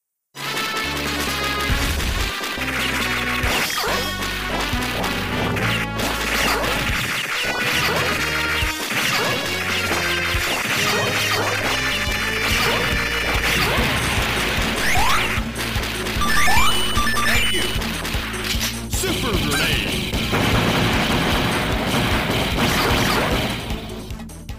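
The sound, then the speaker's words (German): Loud, nonstop combat action from a recorded level of a run-and-gun video game: rapid crashes, thwacks and whooshes pile up over a busy background score for about twenty-five seconds, dense and chaotic with no voices. “Ich habe hier mal einen Level aus einem Metal Slug Spiel aufgenommen”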